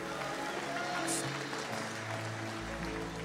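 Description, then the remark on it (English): A crowd at Eternity Church claps steadily, giving a hand clap of praise after a prayer, a dense wash of many hands applauding together that holds at an even level for a few seconds, with faint murmuring voices mixed underneath. “Can we give God a hand clap of praise to the people that just prayed that prayer?”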